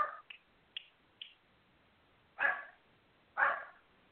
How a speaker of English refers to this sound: sorry guys my my my dogs are joining in as well and letting me know that that they also agree that being playful and is is fun